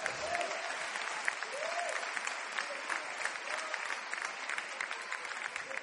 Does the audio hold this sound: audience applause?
yes